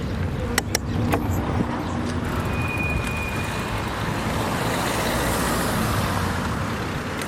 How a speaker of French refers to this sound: Pour l'instant, ça va, il y a un peu de vent, on est à l'ombre, donc ça va.